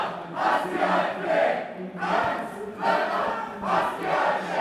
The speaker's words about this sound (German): So hörte es sich an, als knapp 100 AntifaschistInnen am gestrigen Sonntag, den 11. Juni 2023, eine Kundgebung der AfD auf dem Lörracher Marktplatz mit Gegenprotest begleiteten.